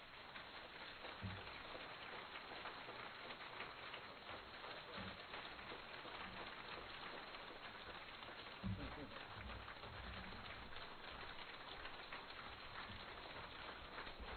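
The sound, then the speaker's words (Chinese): A large crowd at a Buddhist followers' meeting applauds to welcome a guest in a dense, steady wash of clapping that holds at an even loudness for the full fourteen seconds, with a few sharper claps popping out of the texture. “现在，让我们以最热烈的掌声，恭请我们尊敬的…台长。”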